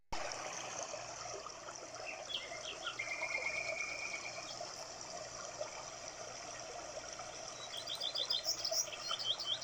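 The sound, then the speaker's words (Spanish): Birds chirp and trill in a forest over a steady wash of flowing water, several quick high calls near the start and a brighter burst of song toward the end. “Un día la abuelita de Caperucita, que vivía en el bosque, un bosque hermoso donde se escuchaba el cantar de las aves.”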